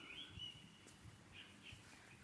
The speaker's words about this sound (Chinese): 不知道听不听得到鸟叫声。